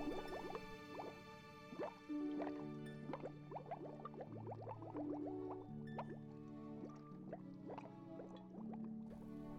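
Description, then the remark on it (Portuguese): A little blue fish releases a steady stream of underwater bubbles that gurgle and pop for several seconds, with quick bubbly plops layered over soft sustained musical notes in the background. “O azulzinho soltou uma porção de bolhas, todo feliz”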